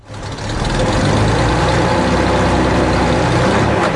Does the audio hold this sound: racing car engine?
yes